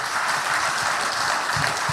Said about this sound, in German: Und lass uns Gott mal einen Applaus geben für, in Dankbarkeit für das, was er 2022 alles getan hat. Komm, lass uns ihm mal einen kräftigen Applaus geben.